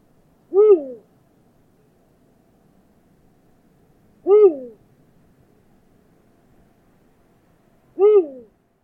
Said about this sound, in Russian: Крик филина — это такой классический крик совы, который у большинства людей возникает в голове, когда они думают про крик совы. Это такое «уху», «уху», можно послушать сейчас, как это звучит.